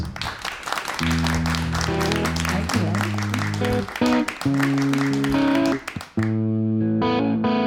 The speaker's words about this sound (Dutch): Dames en heren, applaus voor